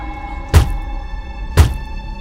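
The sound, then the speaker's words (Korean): Two heavy, dull thuds of a man with disheveled hair, wearing a worn hemp burial shroud, frantically knocking his head against the floor beneath a grandfather clock, about a second apart, low and booming over a steady humming drone, with no voices. “괴종시계 밑에 낡아서 해진 삼배 수의를 입은 남자가 바짝 엎드려선 산발한 머리를 바닥에 미친 듯이 쿵쿵 짚고 있는 거예요.”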